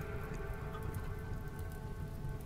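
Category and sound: nature, rain falling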